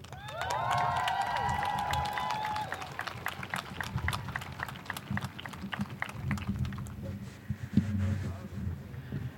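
A crowd in Nijmegen applauds steadily as a man known from the rap scene is introduced to perform, with dense, continuous clapping joined early on by high whoops and cheers, then the clapping thins and fades near the end.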